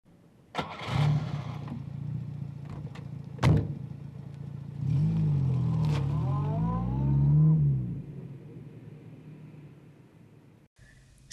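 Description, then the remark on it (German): A car engine starts with a sharp thump, idles briefly, then revs up and pulls away to pass checkpoints, its rising pitch climbing before the sound fades away. “Es gelingt ihm, mit seinem Wagen die Kontrollposten zu passieren.”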